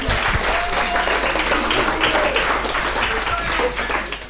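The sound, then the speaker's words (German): An audience applauds steadily as an assistant coach is brought onto the stage as the first interview guest, dense overlapping claps filling the whole stretch at an even, loud level, with a few faint whoops or voices mixed into the clapping. “Deswegen großen Applaus heute”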